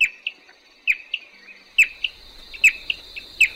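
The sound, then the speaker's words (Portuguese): A bicudinho antbird responds to its species' song played from a loudspeaker, singing a repeated phrase of sharp, mid-high chirping notes, each followed by two or three softer ones, recurring just under once a second over a faint, steady high-pitched hum. “Isso é o bicudinho pistola respondendo o suposto intruso.”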